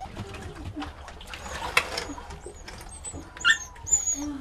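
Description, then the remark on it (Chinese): A small black dog gives a sharp bark and several high, thin whimpers and whines, rising and falling over a low, steady background murmur. “小黑狗或许也知道主人气急败坏的原因”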